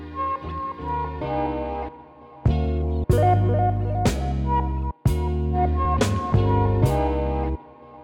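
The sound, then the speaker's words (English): Layered musical notes added over a steady sampled backing in a beat, with a slight delay effect, so bright higher tones ring out and trail off in faint repeats. Loud, with no voices. “I'll add them over the sample and add a slight delay effect to them so they sound like this.”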